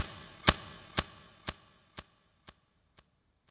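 scissors snipping sound effect

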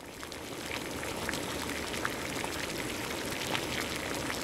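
water boiling

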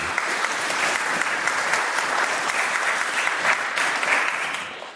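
audience clapping

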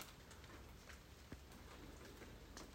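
rain falling

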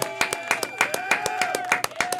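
clapping

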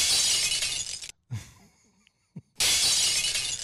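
glass breaking sound effect

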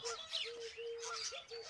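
birds chirping indoors

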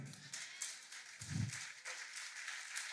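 scattered applause

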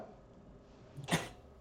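sneeze

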